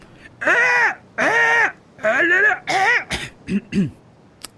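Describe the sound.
A human voice imitates a squawking seagull attempting to sing, with four strained, harsh, nasal caws in a row followed by a few shorter rough squawks, loud.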